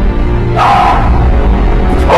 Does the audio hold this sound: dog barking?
yes